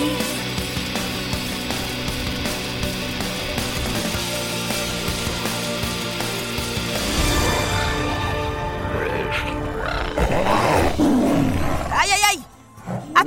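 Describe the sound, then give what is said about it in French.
An escaped giant magical cat's roar rumbles loudly and continuously, growing rougher and more ragged toward the end before a brief dip. Voices seem mixed in underneath. “Attention tout le monde Un chat magique géant s'est échappé Minou, minou, minou”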